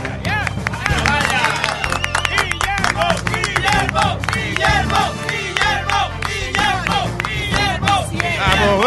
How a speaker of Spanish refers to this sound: Vamos, vamos. Vamos, que desde cuándo se aplaude. En un noticiero?